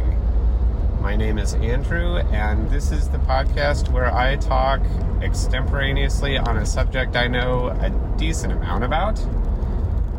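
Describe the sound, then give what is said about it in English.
A man talks steadily while on his way to work in a moving car, over a constant low rumble of road noise, the engine and tire drone filling the background throughout. “Uh, and I'm in the car, I'm on my way to work. Apologies for any road noise,”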